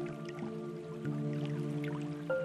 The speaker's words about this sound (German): Nach einigen Minuten horchst du auf. Ein Plätschern erreicht deine Ohren, dessen Ursprung ganz in der Nähe zu sein scheint.